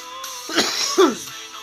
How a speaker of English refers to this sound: All I know is I just coughed and I wasn't planning on it. I'm sorry, ladies and gentlemen.